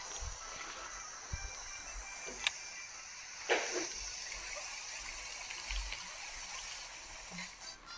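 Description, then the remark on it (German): Steady, dense rushing of water at a waterfall roars without pause, a broad hiss that fills the whole scene, with a few sharp clicks and knocks popping out briefly over the constant flow. “Und es ist so laut beim Wasserfall.”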